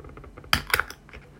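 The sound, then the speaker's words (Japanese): A warmed can of Hakata mizutaki chicken soup with rice being opened: two sharp metallic clicks in quick succession, the second with a brief ringing edge, followed by faint small ticks, with no talking. “あっちょっと温めすぎちゃったなこれちょっと開けてみますね”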